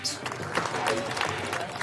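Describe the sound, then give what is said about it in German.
Steady applause from dozens of police officers, a dense, continuous patter of many hands clapping at once for nurses, carers and doctors leaving New York, with indistinct voices mixed into the crowd noise throughout. “Krankenschwestern, Pfleger, Ärzte verlassen New York unter dem Beifall von Dutzenden Polizisten.”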